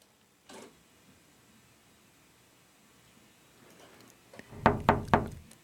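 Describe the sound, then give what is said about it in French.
A faint single tap, then after a quiet pause three quick, loud taps in a close cluster, made by a bird (an artificial cross of about ten bird species) tapping against a window on a November morning; no voices. “C'est bien un hirondo, un croisement artificiel entre une dizaine d'espèces d'oiseaux qui tape contre sa fenêtre en ce matin de novembre 2300”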